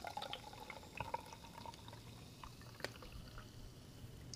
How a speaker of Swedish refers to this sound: Det är en eh, burk i alla fall, en aluminiumburk som man ställer ner när man hällt upp. Det är din fredagskola.